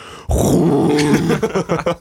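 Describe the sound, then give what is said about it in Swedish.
Someone imitates a Stena Line ferry's foghorn with their voice: a loud, low, buzzing drone held for about a second, then breaking into a few shorter, choppy vocal bursts. “alltså det är typ som en, en Stenaline tutabå eller så här.”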